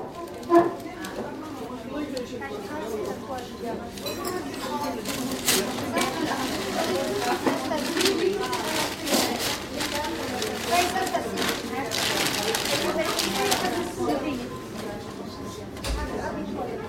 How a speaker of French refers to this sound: Le journal en tout cas, le son du papier journal, qu'il soit feuilleté comme dans cet extrait, froissé ou carrément déchiré.